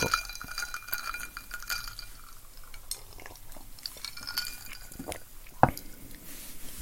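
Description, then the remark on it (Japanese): Ice cubes clink against a glass in a series of bright, scattered taps, with one sharper clink standing out near the end over a faint background hiss and no speech. “あー、氷がいい音するね。”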